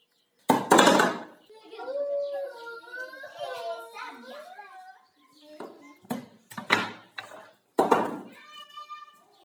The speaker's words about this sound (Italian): Avete sentito anche voi la botta? Seguita dal pianto e dal cellulare che cadeva. Scusatemi, ma ragazza 2 è caduta dalla corda che usavano come altalena. Ha sbattuto la testa a terra